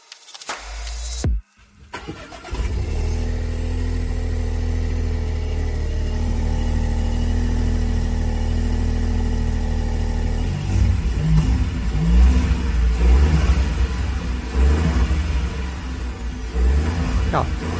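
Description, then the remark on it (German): A small three-cylinder car engine in a manual-transmission test car cranks and catches, then settles into a steady, slightly uneven, high idle with a chattering quality before being revved several times in short bursts. “hören wir uns jetzt nochmal den Dreizylinder an”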